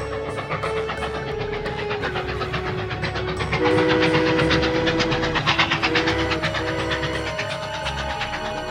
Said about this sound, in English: Soon the train with many policemen went past.